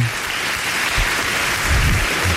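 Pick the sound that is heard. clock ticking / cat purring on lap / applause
applause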